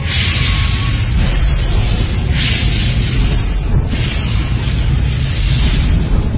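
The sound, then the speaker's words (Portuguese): A sustained roaring fire blast, loud and steady for several seconds, with a deep rumbling low end and hissing crackle surging in waves above it. No voices. “Então o Senhor enviou fogo.”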